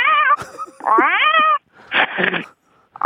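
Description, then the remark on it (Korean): A person imitates a cat, giving a couple of drawn-out, rising meows followed by a rougher, breathy yowl, loud, with short pauses between. “고양이 한번 들어볼게요.”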